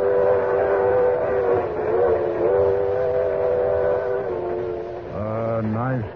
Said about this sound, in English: Two hours and 20 minutes later, I was standing on the observation platform of the Limited Express bound for New York.